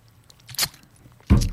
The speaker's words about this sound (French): Bon, attendez un peu, on va prendre une gorgée.